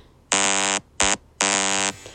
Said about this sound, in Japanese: すいません、スヌーズってあれですよね。あの iPhone の目覚まし、目覚ましのやつですよね。